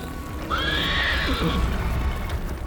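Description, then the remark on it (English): Horses pulling a carriage neigh in one loud whinny that rises and trails off, while hooves clip-clop steadily underneath against a low, constant rumble. “Like he was disappointed, he sat down, and just as he cracked open the worn spine of Lan's book to take a look inside, the ground opened up and swallowed the horses and carriage whole.”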